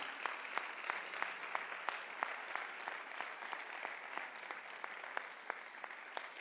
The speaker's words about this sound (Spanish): Si usted lo cree, déle un aplauso fuerte al Señor.